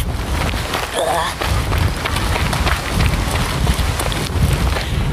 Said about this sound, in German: Ja, es regnet jetzt sehr, liebe HörerInnen.